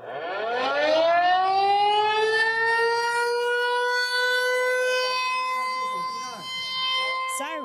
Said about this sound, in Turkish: Taipei'de siren sesleri bir süredir rutin hale gelmeye başladı. Sirenlerle birlikte vatandaşlar da sokakları terk edip metro istasyonlarına veya sığınaklara gidiyor. Muhtemel bir Çin saldırısına karşı halka hazırlamak adına bir tatbikat bu.